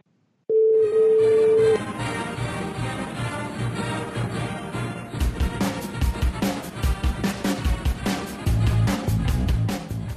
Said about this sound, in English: person whom you're trying to reach is currently unavailable. Please leave a message after the beep.